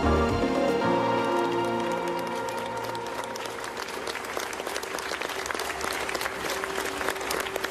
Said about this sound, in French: Des citoyens devant les mairies de France qui applaudissent leurs élus. Un appel initié par David Lisnard, maire de Cannes et président de l'Association des maires de France.